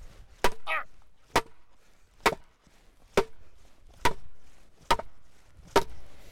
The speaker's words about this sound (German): Jedenfalls ist dieses Brett deutlich schwerer als der Hammer. Und wir müssen jetzt dieses Anschussbrett, wo gleich die Anschussscheibe drauf getackert werden soll, erstmal in den Boden hauen.